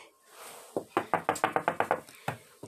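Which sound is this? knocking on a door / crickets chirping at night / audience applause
knocking on a door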